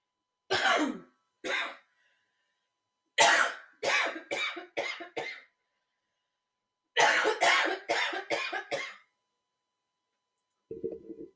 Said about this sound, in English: I'm sorry, y'all. I have um I have coughing fits during this time of year, and it's going to last until March, and then I become hoarse with laryngitis because of me coughing for three months. So don't be alarmed.